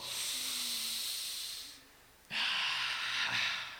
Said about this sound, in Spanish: Entonces, si tú hoy estás respirando así, si puedes hacer esto